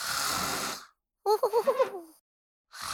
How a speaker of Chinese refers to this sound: 说完，瞌睡虫墩墩又回去睡大觉，床板跟着呼噜声摇晃起来。